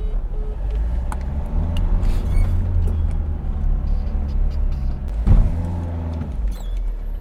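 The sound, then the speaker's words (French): Steady low engine rumble and road noise heard from inside a moving van, constant, with a few brief clunks and a sharper knock partway through. “On est en camion.”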